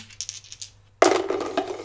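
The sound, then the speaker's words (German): Dice are shaken with a soft, muffled rattle, then tumble out in a louder burst of rapid clicks and clatters that carries on to the end. They are being rolled to pick a numbered film to talk about. “Die werde ich würfeln und dann wirst du einen von diesen Würfeln rausholen”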